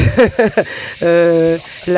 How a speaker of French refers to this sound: avec, vous, avec nous, là, avec les cigales